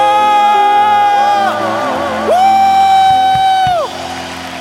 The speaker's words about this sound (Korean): 승리의 함성!